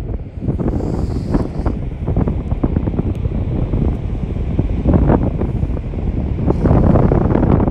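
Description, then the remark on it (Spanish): Strong wind buffets a mobile phone microphone in a steady, roaring rush, with the broad wash of coastal surf blended underneath; no voices, just continuous loud outdoor noise throughout. “Es más, creo que vamos a ir caminando ahorita ahí a la costa.”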